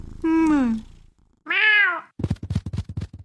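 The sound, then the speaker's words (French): A cat meows twice, the first call longer and falling, the second rising then dropping, clear, followed by a quick run of soft rhythmic thumps. No one speaks. “Viens, viens dire bonjour à maman. Bonjour, oh, bonjour mon chat.”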